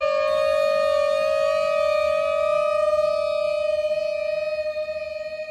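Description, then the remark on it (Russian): An air raid siren wails loudly and continuously, played through a large loudspeaker on the night of 24 February outside a house in Oslo, Norway, where Russian diplomatic staff and their families live, its steady tone holding with strong harmonics and a slight pulsing waver toward the end. “Итак, в ночь 24 февраля он пришел с большим динамиком к дому Восла, где живут сотрудники российской дипмиссии с их семьями, и громко включил звук воздушной тревоги.”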